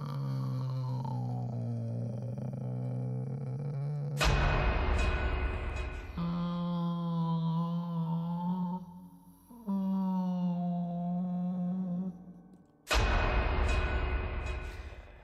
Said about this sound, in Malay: mungkinlah ya bunyi kucing yang uh, dimaksudkan oleh Ila dalam kiriman ini